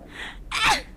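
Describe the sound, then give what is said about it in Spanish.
A single loud sneeze: a brief breathy intake followed by a sharp, explosive burst of air, with no talking around it. “Salud. Gracias.”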